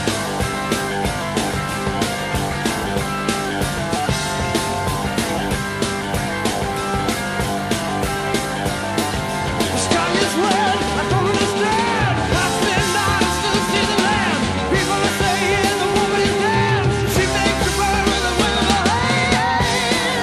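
A loud, dense hard rock track plays throughout with driving drums, heavy distorted guitars and steady energy, filling the whole stretch with no talking over it.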